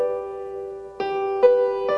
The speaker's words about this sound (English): Um, but just a real quick piano music theory, very very basic lesson is the difference between major and minor. So a major G chord is, sounds like this.